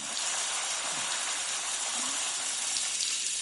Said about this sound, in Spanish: En la ducha, Walt se rasura la cabeza. Pone las manos sobre la barra de la cortina de la ducha mientras el agua recorre su cuerpo.